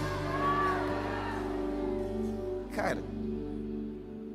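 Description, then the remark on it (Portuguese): A crowd of voices shouts and cheers together in a loud, sustained roar, with a sharp burst of noise partway through before the clamor carries on. “Você gritar assim também?”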